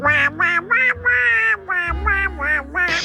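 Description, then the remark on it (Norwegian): A raspy, quacking Donald Duck cartoon voice sputters a rapid string of garbled syllables in bursts, nasal and buzzy, with brief pauses between them and a low hum underneath. “enten er dette en middels variant av Donald Duck-stemme”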